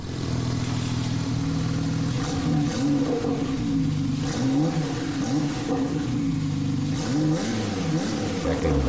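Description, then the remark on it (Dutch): A sports car engine, a Porsche 911 Turbo identified as a 991 generation, revs loudly, its throaty pitch climbing and dropping in repeated surges over a steady, continuous rumble with no voices. “Ja, dit is 911. En dit is 991.”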